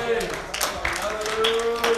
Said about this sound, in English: Uh, when we speak the word, amen. Give the Lord a hand clap of praise.